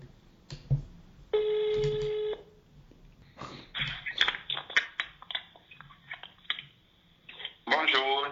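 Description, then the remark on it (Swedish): A telephone call is placed and connects: a steady electronic ringing tone sounds for about a second, followed by a run of sharp clicks and line noises, before a voice briefly answers at the end. “Vi ringer honom på en gång här.”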